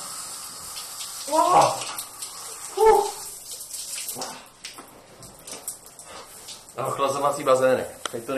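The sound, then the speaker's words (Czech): Shower water runs with a steady, close hiss throughout, while a person lets out sharp yelps and gasps above it, the loudest near the start and a burst of vocal noise near the end. “Přežil jsem tři esence, momentálně jdu do sprchy.”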